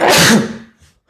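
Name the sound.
sneeze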